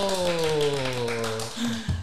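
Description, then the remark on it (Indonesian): A quick run of sharp hand claps in the Tepuk Jadi clapping chant, tapping out a steady rhythm over a sustained, slightly falling tone, ending in a brief lower burst of sound. “Tepuk Jadi, tangan dulu.”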